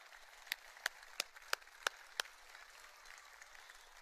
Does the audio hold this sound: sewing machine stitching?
no